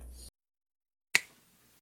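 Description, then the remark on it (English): A single crisp finger snap, a sharp bright click with a quick fading tail, stands alone after a short burst of hiss and a stretch of silence. “my finger snaps, which no one yeah. probably understood.”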